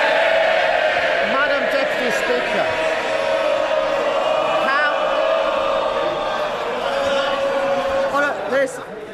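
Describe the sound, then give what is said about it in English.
MPs in a packed chamber of the House erupt in loud, sustained shouting and jeering as the Leader of the Opposition, Sir Keir Starmer, is called, many voices overlapping into a continuous roar with occasional sharper yells rising above the din. “understandable excitement about the of the name, But the House must listen to the Leader of the Opposition, Sir Keir Starmer.”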